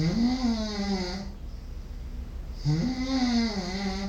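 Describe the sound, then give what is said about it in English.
Two long, loud snores from a person struggling to breathe in sleep, with a rough, buzzing rattle, separated by a quieter breath in between, with no talking. “Like I'm struggling to breathe. That's breathe. me. Just by myself.”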